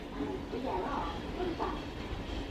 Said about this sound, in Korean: 영국 런던의 한 지하철역.